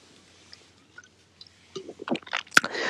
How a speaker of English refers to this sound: So I I'm gonna take a little sip, you know, on that too, because I definitely have, and I've been friend zoned myself.